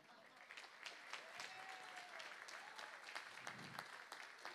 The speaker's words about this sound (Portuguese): Talvez, e eu queria chamar aqui a pessoa que vai fazer o papel de Deus hoje na nossa ministração. Por favor, a nossa salva de palmas para a nossa querida pastora.